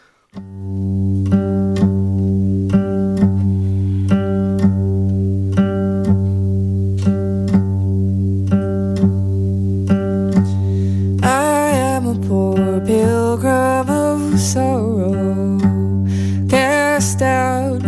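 An old-time American folk song opens with a steady, humming drone and evenly paced plucked notes, then a solo voice enters partway through, singing a slow, wavering melody over the drone.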